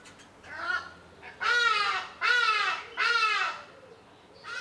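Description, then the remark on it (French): Ibises croaking in a garden: one fainter harsh call, then three loud, rasping honks in quick succession, with no one speaking. “Il y a des tourterelles, des ibis qui croassent et de petits oiseaux jaunes qui construisent leur nid suspendu aux branches.”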